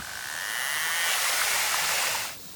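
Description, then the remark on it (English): A narwhal's buzz, made as it gets closer and closer to food: a dense, high-pitched train of rapid clicks that speeds up and swells louder over about two seconds, then cuts off abruptly. No voices. “Well, scientists realised that narwhals made this noise when they were getting closer and closer to food.”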